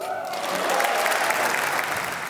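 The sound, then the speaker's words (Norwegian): Steady applause from a large audience at the Nordic Council Literature Prize award ceremony, a dense wash of clapping that stays even and sustained throughout, with a faint murmur of voices underneath. “Lyd fra kåringen av Nordisk råds litteraturpris denne uka.”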